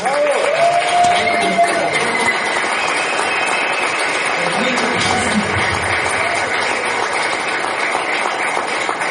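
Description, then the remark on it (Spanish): An audience applauds a team steadily and loudly for about nine seconds after the speaker asks for strong applause for them, a dense, even wash of clapping with a brief vocal cheer near the start. “Este es un equipo maravilloso para el cual pido un fuerte aplauso.”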